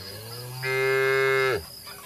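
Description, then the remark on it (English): A single free-range cow on a ranch moos once, a loud, steady, drawn-out low call lasting about a second and ending with a quick downward slide, with only faint background hiss around it. “they're just going out over, uh, they're eating on their own, the grass, then how much grass there is will determine how many cattle there can be in that area without some of them dying.”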